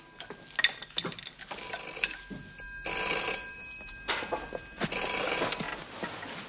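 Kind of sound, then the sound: household object, telephone ringing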